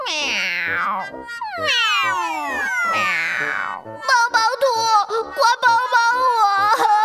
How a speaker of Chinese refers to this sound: 皮羞羞被爸爸丢到了家门口，委屈的大哭起来。